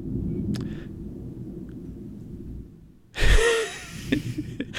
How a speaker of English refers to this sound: and that was, uh, I paid for that background sound effect of the thunder. because it's a Bond villain.